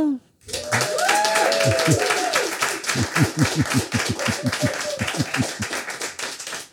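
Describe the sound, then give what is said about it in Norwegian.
An audience claps loudly and continuously to vote by applause for an answer, a dense steady wash of hands that keeps going for several seconds, with a few voices whooping and calling out over it early on. “Så vi må klappe høyest for den dere har eh, troa på.”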